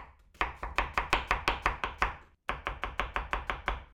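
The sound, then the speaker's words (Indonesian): A knife slices shallots, carrots and pumpkin on a cutting board in quick, steady, crisp strokes while water heats in a pot, with a brief pause midway before the rhythmic chopping resumes. No one speaks. “Sebelum airnya mendidih sambil nunggu Kita iris dulu bawang merahnya Terus potong iris-iris juga untuk wortel, labu”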